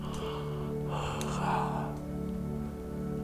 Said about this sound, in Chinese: 八十六个哈欠